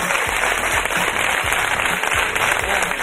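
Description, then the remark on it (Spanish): An audience at a live in-person show bursts into steady, loud applause as a listener is called up, dense overlapping claps forming a continuous crackling roar that holds evenly for a few seconds with no voices over it. “A Francisco, por favor, que suba. Un aplauso para él.”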